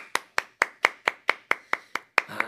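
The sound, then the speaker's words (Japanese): Steady hand claps from one person, a female staff member in a studio, about ten sharp claps in a regular rhythm, fairly loud with no talking over them. “もう今の拍手から見ても分かりますもう女性スタッフから拍手ありましたけども”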